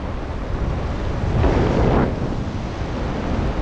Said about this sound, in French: si, si, il y a du vent, vent un peu nord, c'est ça